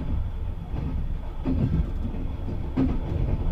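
The Hayabusa/Fuji Blue Train sleeper express rolls along the rails in Japan, about six minutes before its terminus at Tokyo, with a steady, deep rumble broken by a couple of sharper wheel clacks over the joints, and no voices.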